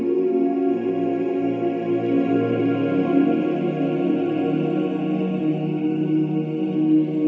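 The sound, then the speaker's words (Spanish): Whale song: long, low, wavering moans layered over a steady tonal hum, continuous and fairly loud throughout with no speech. “Las sacerdotisas, las damas blancas, juntan ahora sus manos y en el momento en que todas se enlazan, escuchas a la Gran Madre, a la ballena estelar, que te ofrece su cantar.”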